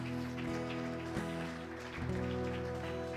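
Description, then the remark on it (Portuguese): A church audience applauds Jesus in a dense, steady wash of clapping that runs throughout, over sustained held keyboard chords with occasional note changes; no one speaks. “E se você crê nisso, querido, aplauda Jesus essa noite.”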